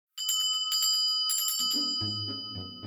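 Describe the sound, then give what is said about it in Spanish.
A small bell rings in quick, bright, trilling bursts, its metallic tone lingering as a lower, steady hum swells underneath toward the end. “Merci, campanita, suena.”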